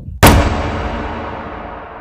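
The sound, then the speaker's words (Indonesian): A single loud, sharp bang like wood thrown against the rear door of a warehouse, followed by a long reverberant decay that fades over a couple of seconds. No voices. “tiba-tiba pintu gudang yang belakang kita tempat kita duduk itu kedenger banget suaranya itu seperti kayu yang dilemparkan di pintu”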